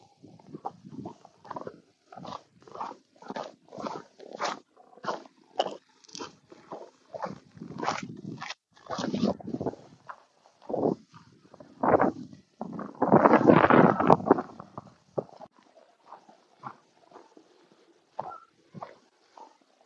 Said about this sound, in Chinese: 听着这个雪的声音，好听吧？